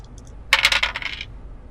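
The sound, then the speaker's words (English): Dice are rolled on a table for a research roll, landing on a 10; they clatter across the hard surface in a quick burst of sharp, bright clicks that bounce and settle over about three-quarters of a second, with a few faint ticks just before. “And uh, yeah, roll a research roll for me again.”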